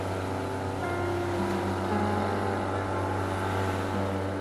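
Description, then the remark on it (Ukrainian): A motorboat engine drones steadily and loudly, a constant low hum with rushing water and wind noise as the boat speeds at up to 40 km/h over waves on the Kyiv Reservoir, no voices. “Об'єм цього двигуна дозволяє човнові розігнатися до 40 км на годину.”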